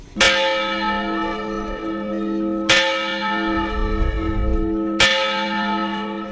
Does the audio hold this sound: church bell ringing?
yes